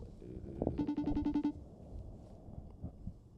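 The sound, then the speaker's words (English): A phone ringing tone of an outgoing call sounds once as a short burst of rapid, evenly pulsed electronic beeps lasting under a second, moderately loud over a murky, low background rumble. “Oh, my of shit gonna start as ringing. we as we as we ring up. Oh, there it is.”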